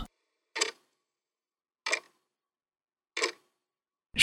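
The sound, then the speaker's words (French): Three sharp, evenly spaced ticks from an alarm clock, about a second apart, in otherwise silence, followed by a louder burst at the very end as the alarm seems to start. “Le réveil Mais je l'entends, moi aussi.”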